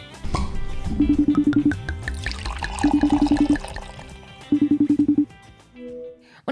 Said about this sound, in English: So sit back and pop your cork as we pour our next glass